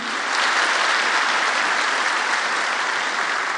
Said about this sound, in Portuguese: Aplauda o Senhor, Ele é digno.